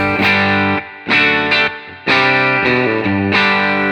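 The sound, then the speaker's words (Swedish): Overdriven electric guitar with a 50B broadcast-variant pickup plays a loud, gritty riff of struck chords, each ringing out before the next hit, about seven attacks in a loose rhythm, with no voices. “Det här är alltså då 50B, eh, broadcast-varianten.”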